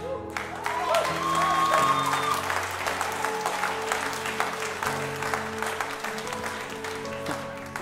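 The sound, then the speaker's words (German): A church audience breaks into steady, dense applause after a sermon ends with "Amen", filling the whole stretch, with sustained organ or keyboard chords ringing underneath and a faint cheer rising early on. “Jetzt klatscht ihr noch.”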